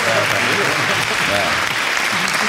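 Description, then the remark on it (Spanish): Fans applaud steadily and loudly throughout during a live broadcast on Radio 4G, a dense wash of many hands clapping at once, with faint voices mixed in underneath. “Bueno, pues ahí los fans no, se cansan de aplaudir a los aerodinámicos en Radio 4G en directo.”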